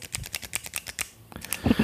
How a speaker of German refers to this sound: Ich hole meinen mein Kuli, ich klicke auch nochmal ins Mikrofon